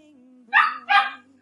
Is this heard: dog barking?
yes